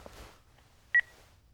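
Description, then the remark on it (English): A single short, high-pitched electronic beep from an answering machine sounds sharply against a quiet, faintly rumbling background, with no voices present. “The answering machine's going crazy.”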